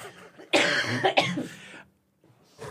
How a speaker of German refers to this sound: Na, ich mach ruhig, ich ja muss mal kurz Rauchhusten husten.